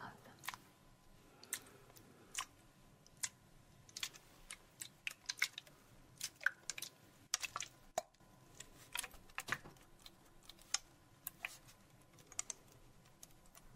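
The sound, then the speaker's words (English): A spray bottle spritzes water onto a cloth in many quick bursts, irregular and crisp, with soft clicks and handling noises between them and no talking. “And I'm going to spray this cloth.”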